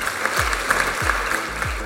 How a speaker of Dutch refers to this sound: ik weet eigenlijk niet of dat hoort bij de Senaat, maar in dit geval vind ik een luid applaus daarbij.